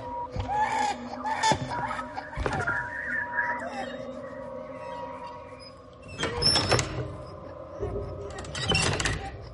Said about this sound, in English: you can hear something walking through the hallway just to your immediate left. And it reaches the door and it stops and it starts trying the latch repeatedly.